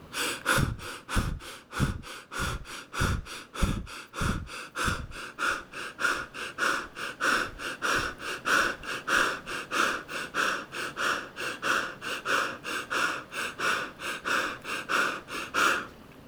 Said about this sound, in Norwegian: Hvis du sitter helt rolig og puster som sånn dette her, sånn, sånn 20-30 ganger Vi gjør det i lag nå. Følg med nå. 20-30 ganger.